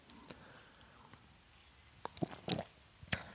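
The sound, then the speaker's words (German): Quiet mouth sounds of someone drinking a sip of water: a few wet gulps and swallows clustered near the end, with soft clicks between them and no talking. “So, ich muss mal einen Schluck Wasser. Prost darauf.”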